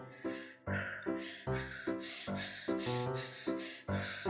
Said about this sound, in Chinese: 突然， 队伍中传出了一阵急促的呼吸声。